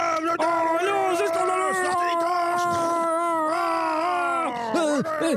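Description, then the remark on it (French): A crowd grumbles in discontent, several voices groaning and moaning together in loud, drawn-out, wavering tones that rise and fall continuously without pause. “Oh la grogne”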